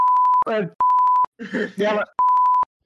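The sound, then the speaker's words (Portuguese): Three loud, steady censor bleeps alternate with short bursts of a person talking, each flat tone cutting in abruptly between the spoken fragments. “Enche de bip e vai parecer que você falou a coisa mais horrível do mundo.”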